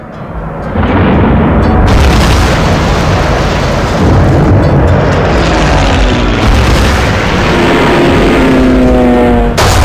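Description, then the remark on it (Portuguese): Warplanes of a second attack wave of 170 aircraft roar overhead while heavily bombing, in a loud, dense, unbroken rumble mixed with heavy booms and blasts, and a droning engine tone sweeps through near the end. No voices are present. “Após quatro horas do primeiro ataque, ocorreu a segunda onda de ataque, composta por 170 aviões que bombardearam pesadamente as zonas poupadas no primeiro ataque.”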